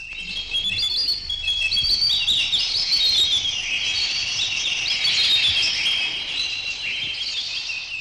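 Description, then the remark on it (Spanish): A dense chorus of many small birds in seven thousand cages chirping and twittering at once, a steady, bright, overlapping chatter that fills the whole stretch at an even loudness, with no voices. “Yoringuel miraba todas aquellas siete mil jaulas. ¿Cuál de los pájaros sería Yorinda?”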